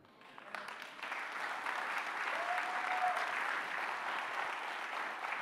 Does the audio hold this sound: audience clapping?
yes